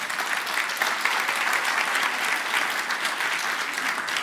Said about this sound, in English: So, all of that applause goes to God for who He is. It doesn't go to any of us, as we know that it's not about us, it's about our community.